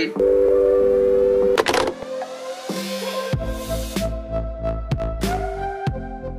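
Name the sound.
voicemail beep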